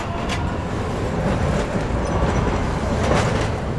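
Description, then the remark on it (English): A Green Line light rail subway train rumbles past at street level down the middle of Commonwealth Avenue in Allston, Boston, a steady low roar with metallic rattling and brief high squeals from the wheels, surrounded by background traffic noise. “Here, the Green Line subway runs above ground down the middle of Commonwealth Avenue, past a world array of ethnic restaurants, bars, and clubs.”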